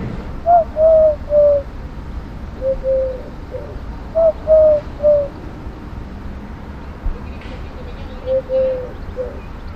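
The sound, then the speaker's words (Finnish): A Eurasian collared dove coos its low, three-note phrase four times at a steady, unhurried pace, each call clear against a constant background hiss and rumble. “Turkin kyyhkyjä on etelässä aika paljon ja silloin suht selkeä – ääni, mitä voi sitten koittaa.”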